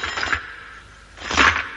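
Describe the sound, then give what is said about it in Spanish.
A shower of gold coins pours down over Numerovis, covering him, in two dense, jangling bursts, a bright metallic clatter of many pieces at once, separated by a brief quieter lull. No voices. “Un chorro de monedas de oro cae sobre Numerovis, tapándole.”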